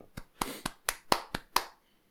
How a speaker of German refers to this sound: Bisschen klatschen.